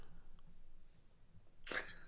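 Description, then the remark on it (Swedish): After a stretch of quiet low background noise, one abrupt, harsh, classic cough bursts out near the end, loud and breathy, with no talking. “Där kom den också. den klassiska hosten.”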